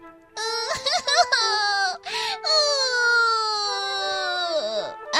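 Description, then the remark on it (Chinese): A voice imitates a baby owl crying: a few short, choppy sobs, then one long, loud, high wail that wavers and sinks in pitch at the end, with nothing else underneath. “原来是一只小猫头鹰在哭呢。小猫头鹰宝宝伤心地哭着，声音变得越来越大。”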